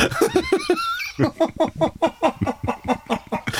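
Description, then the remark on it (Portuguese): A chicken clucks in a quick, steady run of short bursts, fairly loud, after a brief higher squawking call at the start. “Eh, vamos, vamos deixar um bocadinho o doutor ali a ordenhar esta galinha”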